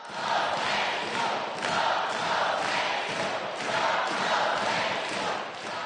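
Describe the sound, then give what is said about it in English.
A large crowd of about 600 parents, students, teachers and community members packing the bleachers of the Truman College Gym in Uptown at a February 16th meeting roars and cheers continuously, a dense wash of many voices with swelling bursts every second or so, loud and sustained throughout with no single voice standing out. “Their support for their schools was enthusiastic and vocal.”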